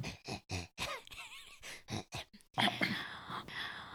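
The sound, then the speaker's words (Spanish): A loud breath rushes straight into the microphone for over a second, a harsh airy blast that follows a series of short grunting vocal sounds. “¿Qué fue esa respiración?”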